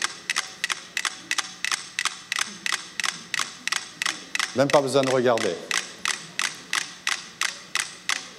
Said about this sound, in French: Ça, c'est cinq oscillateurs. Et quand on met le socle sur la canette, les maîtres métronomes communiquent et on peut entendre qu'elles se synchronisent.